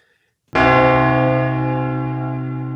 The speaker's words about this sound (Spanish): Vale, pues voy con mi última recomendación también, la doce, doceava eh, campanada